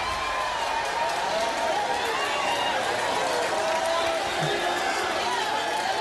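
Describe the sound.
A crowd cheers steadily for about six seconds, a dense, unbroken roar of many voices that holds the same loudness from start to finish.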